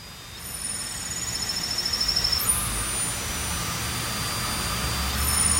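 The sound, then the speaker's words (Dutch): Hot water hisses steadily in an amateur-made ceramic mug, recorded with a phone held to it, a broad continuous rushing noise with a faint high-pitched whine on top that flickers and wavers, swelling slightly toward the end. “Dit is heet water in een, in een eeuw van amateur mok.”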